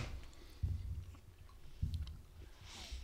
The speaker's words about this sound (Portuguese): Não, que eu tô comendo podcast assim mesmo, tá cheio de fome. Fome de 30 mendigo.